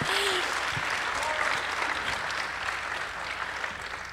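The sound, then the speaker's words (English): An audience claps for a speaker in a steady, dense round of applause that holds at a fairly even level for a few seconds before easing slightly, with a faint voice or two underneath. “oh yeah, yeah, give him a round of applause, give him a round of applause.”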